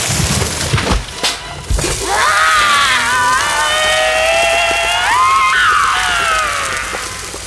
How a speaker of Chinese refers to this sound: 原来下来的不是大姐和二姐，他们绳子拉没两下，趁老虎精没注意，放手把热水整锅淋进老虎精的喉咙里，大锅子也砸上他的头，老虎精便尖叫着消失了。